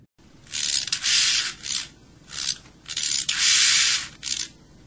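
A grasshopper stridulates, rubbing one body part against another, with a dry, hissing rasp in several irregular bursts of varying length, fairly loud, with brief pauses between them and no voices.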